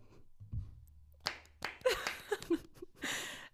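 A short burst of hand clapping, a handful of sharp claps in quick succession building to a brief patter of applause, with a faint low hum beneath.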